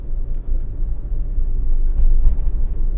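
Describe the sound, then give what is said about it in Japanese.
A steady low rumble of an engine heard from inside a car in winter, with a deep, constant drone and slight swells in loudness but no voices. “やっとね何ていうの車の中で上着を着ております”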